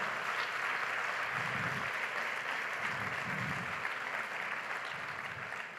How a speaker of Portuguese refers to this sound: Vai aplaudir e vai na fé.